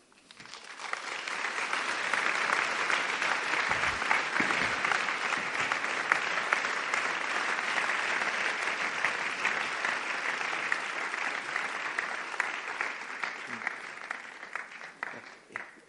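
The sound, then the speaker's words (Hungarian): Sustained audience applause, a dense, even wash of many hands clapping that swells quickly and holds steady for about fifteen seconds before thinning out at the end. “Köszönöm a tapsot, olyan érdekes ez, mert vagy tíz évig úgy voltunk, hogy sosem volt taps”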